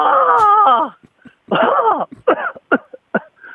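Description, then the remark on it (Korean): A voice imitates an annoyed crow cawing with one long, strained, raspy call, then a string of short, choppy, sputtering caws. The calls are loud with no other sounds. “그다음에 좀 귀차 귀찮은 까마귀. 아 귀찮은 까마귀.”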